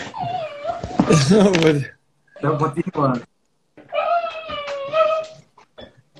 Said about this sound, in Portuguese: É cachorro dele. Tem algum cachorro sofrendo aí, bichinho. É. Erro de gravação. a cachorrinha querendo sair do quarto. Oh, meu Deus, bichinha.